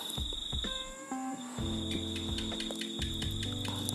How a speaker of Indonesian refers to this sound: Tuh, suara cicak. Asik kan di kampung?